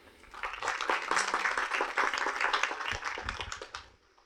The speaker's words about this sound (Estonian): teeme suure-suure aplausi